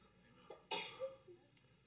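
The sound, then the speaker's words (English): A single sharp sneeze bursts out, preceded by a brief quick inhale and followed by a faint trailing vocal sound, with no talking around it. “bless you”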